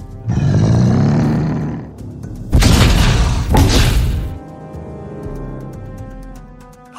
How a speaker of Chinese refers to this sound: 还真的用铁锤去打你丢的木桶了，这下锤子嵌进木桶里了，看他怎么办！